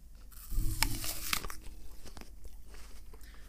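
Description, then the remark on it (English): Crisp crunching as teeth bite into an Oregon Honeycrisp apple, a sharp burst of snapping followed by several seconds of quieter, wet chewing with no talking. “In fact, this is an apple.”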